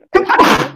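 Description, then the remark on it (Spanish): A single sharp sneeze bursts out, a quick intake followed by a loud, breathy explosive release, heard on its own without talking. “Salud, ¿quién es todo?”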